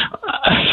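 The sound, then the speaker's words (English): A single sudden sneeze by a telephone caller in Temecula, loud, with a short breathy build-up before the sharp burst, sounding thin and muffled through the telephone line. “Bless you”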